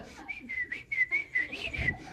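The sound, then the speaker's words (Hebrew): A person whistles a rapid series of short, high chirping notes, about eight in a row, imitating a bird's call to fool a French teacher in class, with faint background noise and no speech. “והיה מצפצף. אז הוא מחפש את הציפור,”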